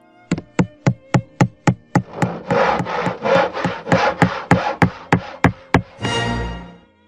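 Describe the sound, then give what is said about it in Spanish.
Sharp, evenly spaced hammer blows ring out during the renovation of a house, then a stretch of rhythmic back-and-forth sawing overlaps the knocking, ending with a brief harsh burst. Loud, with no voices. “Había taladros, martillos y palas que creaban un molesto ambiente especialmente para los oídos sensibles de un animalito.”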